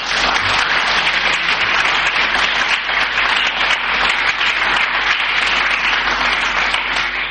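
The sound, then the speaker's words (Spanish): A large audience at the Asociación de Vecinos San Marcos in the Arbejar neighbourhood breaks into sustained applause, dense overlapping claps forming a steady, loud wash of noise that holds evenly for several seconds without any voices. “Y en esta jornada de jueves, que es en la que estamos grabando el programa que ustedes están escuchando hoy sábado o domingo, lo estamos realizando en la Asociación de Vecinos San Marcos en el barrio de Arbejar un aplauso, por favor.”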